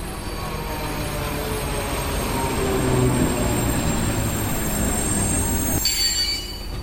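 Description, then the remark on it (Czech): A České dráhy (Czech Railways) train, number 1408, bound for a station in Moravia, rolls in at track 4 with loud, sustained high-pitched wheel squeal and a steady rumbling roar. The squeal persists throughout, ending as the noise abruptly drops near the end. “Přijede na kolej číslo 4 při pohybu v kolejích dbejte své osobní bezpečnosti.”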